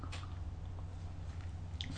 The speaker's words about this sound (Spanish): me doy el primer sorbito de la jornada amargo, sin una gota de azúcar, pero siempre, siempre necesario.